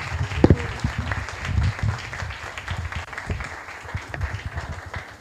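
An audience applauds steadily to welcome a guest who has just been called up, a dense wash of many hands clapping at an even level for several seconds, with a few sharper individual claps standing out and no speech.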